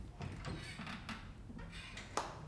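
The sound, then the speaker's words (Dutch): A door is opened with a series of soft clunks and scraping mechanical noises, fairly quiet, followed by a sharper click near the end. “Ja, kom, ik doe die deur open.”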